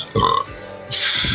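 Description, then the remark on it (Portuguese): A single short burp rings out, followed by a brief hiss of breath or noise; no talking during it. “Saúde, olá, deselegância, a famosa deselegância do time.”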